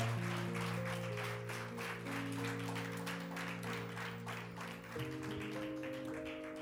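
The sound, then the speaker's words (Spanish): A crowd at a church service claps steadily and loudly for several seconds in applause to God, a dense wash of applause layered over sustained organ-like chords that shift near the end. “Alguien pueda darle un aplauso fuerte a Dios.”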